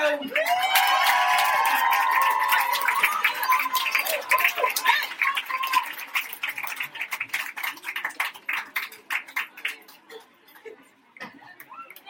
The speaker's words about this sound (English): Are we ready to go? I think we're ready to go, Let's have A big round of applause for the kickoff. Here we go.